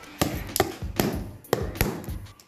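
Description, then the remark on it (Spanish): A homemade drum is tapped in an uneven rhythm: about five sharp, crisp strikes alternate with softer, deeper thuds, all fairly quiet, with no voices. “y hice un tambor.”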